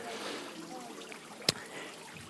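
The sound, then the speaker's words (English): A soft, steady trickle of water runs throughout, fairly quiet, with a single sharp click or drip-like tap about halfway through. “You want some water? Look here.”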